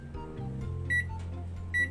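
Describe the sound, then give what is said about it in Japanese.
Two short, high electronic beeps from microwave oven buttons as it is set to heat roast beef, spaced about a second apart, over a steady low hum and faint background noise. “これからローストビーフのねあの加熱を開始しますといってもね簡単でヘルシーでねピッピッするだけなんですよね”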